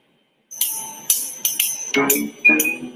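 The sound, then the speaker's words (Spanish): A bright electronic mobile phone ringtone plays a quick melodic phrase of chiming, bell-like notes with sharp attacks, moderately loud, with no voices over it. “Y la verdad me gusta, por ejemplo, este, este tono de teléfono me lo acaban de poner. Me gusta mucho cuando suena, fíjate.”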